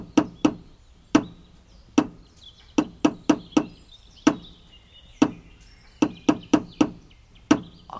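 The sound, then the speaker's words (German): Sharp hammer blows on wood ring out in uneven clusters, some quick doubles and runs of three or four, separated by short pauses. No voices, just the hammering. “Das ist der Hammer.”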